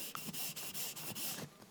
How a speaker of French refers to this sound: Voilà, ça c'était le bruit du t-shirt.